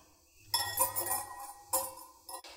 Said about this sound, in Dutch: Ehm, in een kommetje doe ik vervolgens de suiker en eh, de maizena en het cacaopoeder met dat restje, die 100 milliliter melk. En dat klop ik goed door elkaar.